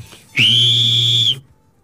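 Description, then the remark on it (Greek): At a football match, one long, shrill whistle blast, blown by someone in the Gate 13 stand, holds a steady high pitch for about a second, loud and alone, then cuts off sharply into quiet. “Δεν σφίριξε. Μου λέει όχι εγώ.”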